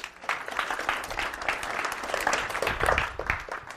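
An audience applauds steadily, a dense wash of many hands clapping at an even, fairly strong level for a few seconds, with no talking over it.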